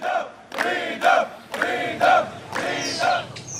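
A crowd of migrants at a camp in the border region to Belarus shouts demands for freedom in unison, rhythmic chant-like bursts roughly every half second to second, loud and raised, with many voices overlapping.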